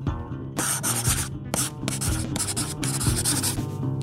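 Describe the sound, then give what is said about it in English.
A pen scratches across paper in several quick, scribbling strokes, fairly loud, with brief pauses between bursts, as someone signs a non-disclosure agreement. No one speaks. “it was the sound of a non-disclosure agreement.”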